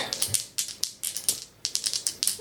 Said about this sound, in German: Und da würfel ich auf Dark.